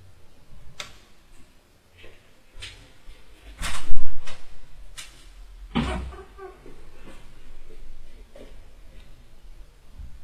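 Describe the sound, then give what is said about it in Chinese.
A door creaks as it is opened, amid scattered clicks and knocks of handling. The louder creaks and thumps cluster in the middle, and no one speaks. “我就开一下门，实在太热了啊。对，吱嘎吱嘎吱是开门的声音。”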